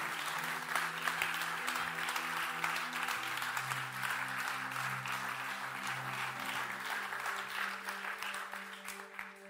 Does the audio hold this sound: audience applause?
yes